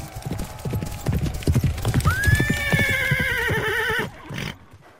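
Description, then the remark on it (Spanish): Rapid clip-clopping hoofbeats as a band of riders gallops off on their horses all at once, leaving a cloud of dust, loud, with a long horse whinny rising over them midway before the hooves cut off and fade. “Que corrieron derechos a sus caballos y que en un abrir y cerrar de ojos ya nada más habían dejado la polvareda.”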